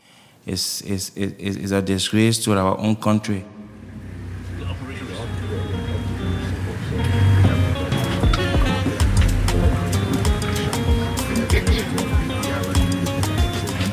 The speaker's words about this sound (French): Aujourd'hui, nous sommes mardi et je suis en route pour la clinique de Pipeline, soutenue par Médecins sans frontières. Depuis l'arrière du camion, j'observe le chauffeur se faufiler avec adresse entre les kékés, ces taxis à trois roues asiatiques